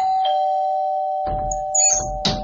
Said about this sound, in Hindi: और फिर डोरबेल बजी